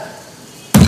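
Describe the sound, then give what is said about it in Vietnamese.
After a near-silent stretch, a hand slams down hard on a wooden table once, a sudden loud thump at the very end. “đập cái này mình hỏi à, người bệnh nghe cái gì à, người đó sẽ nói là nghe tiếng đập bàn rồi mình hỏi những người xung quanh có nghe cái tiếng đập bàn không ai cũng nói giống nhau hết”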